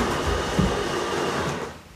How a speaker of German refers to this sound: Was Sie hören, ist unsere Kaffeemaschine. Wir sind gerade noch dabei, uns zu installieren.